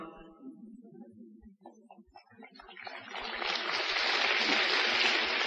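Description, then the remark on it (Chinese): Audience applause breaks out partway through and swells into a steady, dense patter of many hands clapping, following a brief stretch of low voice-like murmur at the start. “嘿，鼓掌了要要算的喽。”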